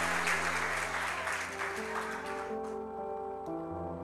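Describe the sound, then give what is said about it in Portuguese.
A church audience applauds for God in a dense, steady clatter of clapping that thins out after a couple of seconds, while sustained organ or keyboard chords hold underneath and carry on alone. “Gente, dá uma salva de palmas para o nosso Deus.”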